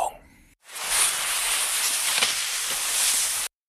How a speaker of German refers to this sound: So, das passt gar nicht zur Jahreszeit, ne? Ein Schlitten im Schnee. Also ein Schlitten, der über den Schnee fährt. So einfach kann das sein.